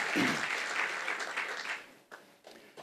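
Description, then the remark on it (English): An audience at a Christian ministry service claps together for Jesus in a dense, sustained burst of applause that gradually thins out, with a few scattered claps lingering at the end. “Yeah, the people at the back, clap hands.”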